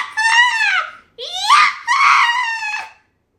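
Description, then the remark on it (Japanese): A person voices three shrill, squeaky squeals in quick succession, imitating a rabbit. The squeals are loud, with a brief pause after the first and the last two nearly running together. “うさぎのチューニングしてるか チューニング恥ずかしいよな”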